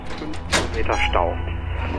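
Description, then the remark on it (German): A room door in a shared flat is opened after a knock goes unanswered: a sharp latch click, then a brief creaking swing, over a steady low background hum. “Als niemand antwortet, macht er die Tür auf.”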